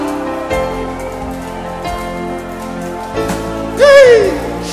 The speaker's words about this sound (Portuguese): Tem gente aplaudindo o nome de Jesus.